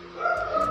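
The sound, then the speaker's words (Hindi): A dog barks, a couple of quick yelps over a steady tonal hum, moderately loud, with no one talking. “I am sorry ये भौंकने की आवाज़ से आई एम रियली सॉरी यार फिर से आ रहा है”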